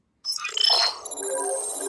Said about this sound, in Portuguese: Continuando, Samaritano, porque aqui é ao vivo, aí telefone toca, você atende